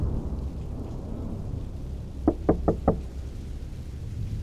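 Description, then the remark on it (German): Four quick, evenly spaced, moderately loud knocks on a wooden house door cut through a steady backdrop of storm rumble and rain. “als es erneut an der Tür klopft.”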